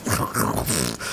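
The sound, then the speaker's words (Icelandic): A person imitates a rattly old Nissan Micra car with their voice, making a fairly loud growling, sputtering rumble that lasts about a second. “þetta var bara eins og að kera pappakassa sko þessi bíl var svo mikil skrutta sko það var bara hljóðin í honum voru bara eitthvað svona”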